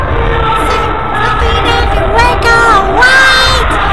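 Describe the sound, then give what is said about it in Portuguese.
A large crowd screams and cheers continuously, loud, with high-pitched shrieks and whoops rising over a dense roar of voices that swells toward the end. “Ai, que gritaria, eu tô surda.”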